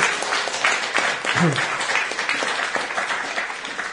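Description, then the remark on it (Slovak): A live audience breaks into steady applause, a dense patter of many hands clapping close by, with a brief voice or cheer rising over it midway. “A to, teraz ste vlastne aj vy, vážení poslucháči, počuli, že naozaj tí ľudia tu sú, takže mi to môžete veriť.”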